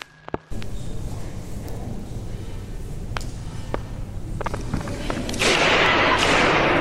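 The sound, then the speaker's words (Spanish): A hammer strikes the protective glass of a famous painting at the National Gallery in London on 6 November 2023, in a series of sharp, irregular cracks over a steady murmur of background noise, which swells louder and hissier near the end. “Lo que suena es un martillo impactando contra un cristal, pero no un cristal cualquiera, el cristal de protección de un famoso cuadro.”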